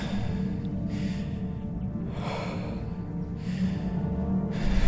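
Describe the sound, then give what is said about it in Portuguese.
Heavy, ragged panting: four or so loud breathy huffs at a steady pace from a man catching his breath after a great fright, having repeatedly stomped on a strange creature in sand. A low rumbling background continues underneath. “Ofegante, Liam parou para recuperar seu fôlego após o imenso susto.”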